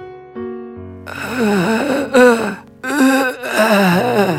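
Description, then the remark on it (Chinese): An old man's weak moaning cry of pain, the elder in the story heard by Edmond, drawn out in two long, wavering groans with a brief break between them, following a second of steady low tones. “爱德蒙听到长老微弱的叫声，赶紧从秘密通道过去看看长老的情况。”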